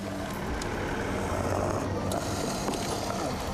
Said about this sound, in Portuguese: preciso parar a caminhonete várias vezes. A trepidação, ela tá vindo para cá e tá dificultando a respiração dela.